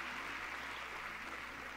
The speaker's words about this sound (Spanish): Démosle un fuerte aplauso al Rey de Reyes. Gloria al Señor.